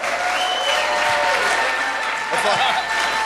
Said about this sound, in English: Stand up on your feet, won't you, and put your best hand clap together